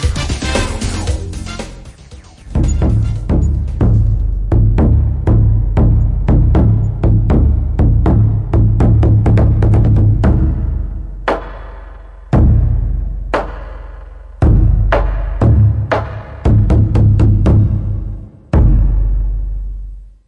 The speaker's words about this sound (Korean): 이게 큰 북소리라고 합니다.